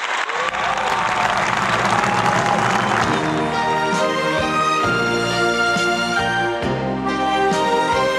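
An audience breaks into loud, steady applause for about three seconds, then the clapping fades as an instrumental music introduction with sustained melodic tones takes over.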